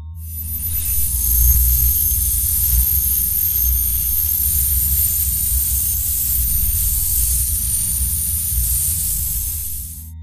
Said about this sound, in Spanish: No sé cómo describir ese sonido que se escuchó fue como algo metálico o magnético, tal y como aquel señor había tratado de explicarlo. No fue un sonido fuerte o lastimoso, pero sí se escuchó en todo el pueblo.